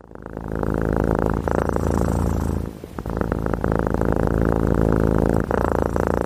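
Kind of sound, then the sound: animal, domestic cat purring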